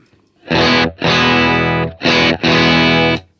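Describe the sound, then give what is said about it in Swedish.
A distorted electric guitar through an amp's bright channel, turned up to 12 o'clock and played into a Greenback speaker cabinet, plays four loud, sustained chords in two pairs, each ringing with a gritty, treble-heavy edge before cutting off abruptly. “Och det här är ju då Bright-kanalen va?”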